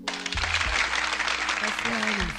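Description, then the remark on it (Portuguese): A crowd bursts into steady, dense applause that holds at full strength throughout, a constant crackle of many hands clapping with some voices calling out beneath it. “Então aqui, gostaria de deixar aplausos”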